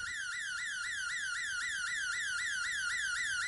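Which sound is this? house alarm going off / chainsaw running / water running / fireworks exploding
house alarm going off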